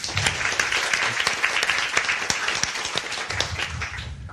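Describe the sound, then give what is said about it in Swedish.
Sustained audience applause welcoming a comedian as a panel guest, a dense crackle of many hands clapping at steady loudness for several seconds, with no speech over it. “Gott folk, ge en varm applåd”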